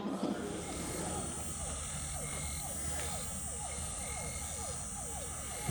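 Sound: frogs croaking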